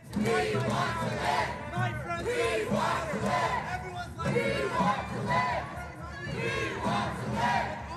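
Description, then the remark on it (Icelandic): A crowd of protesters shouts "Við viljum lifa" ("We want to live") in unison, repeatedly, at a politician. Loud rhythmic shouted phrases repeat over and over with a steady cadence, voices blending into a dense roar. “Við viljum lifa, própuðu þeir ítrekkað að mannsinn.”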